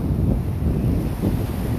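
Steady wind buffets the microphone over a low, rolling rumble of sea waves at the shore at night, around 11:30 pm, continuous and fairly loud, with a slight swell partway through and no voices.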